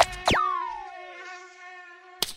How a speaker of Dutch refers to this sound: Hoe komt dat eigenlijk dat muggen zo'n irritant geluid maken? Ja, dat wil ik wel eens weten. Waarom zoomen muggen?